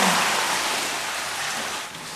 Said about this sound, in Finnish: Pistä jalat ensin sinne. Oh, okei. Okay. Mutta kuule, tulla aika paljon vettä sun jaloillesi. Joo, ei mitään hätää.